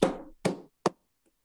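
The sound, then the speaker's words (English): Three conga strokes, heel (back of the hand) then toe (fingers), each a sharp thump with a short ringing decay; the first two are fuller and longer, the third a brief, brighter hit, with no talking. “We have what's called the toe which is my fingers, heel, which is the back of my hand.”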